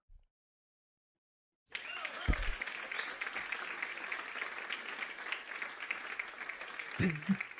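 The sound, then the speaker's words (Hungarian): An audience bursts into sustained applause for a guest of the show after a short silence, a dense, steady wash of many hands clapping that holds at an even level to the end. “Tényleg, meg is tapsolnak.”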